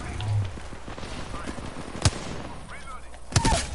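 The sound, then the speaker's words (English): Video game gunfire: two sharp, separate shots about a second apart, each a loud crack over a steady background hum, with faint voices murmuring underneath. “I missed all those shots.”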